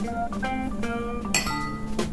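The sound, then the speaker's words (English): Glasses of mixed drinks clink together in a toast, several bright ringing taps that chime and fade quickly, with no one speaking. “All right, cheers. Cheers.”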